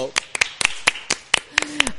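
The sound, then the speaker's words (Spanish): A small group of people downstairs clapping, about nine sharp, crisp claps in a loose, uneven rhythm over two seconds, with faint voices murmuring underneath. “Aplaude la gente abajo cuando aplaudimos nosotros, como que le hace.”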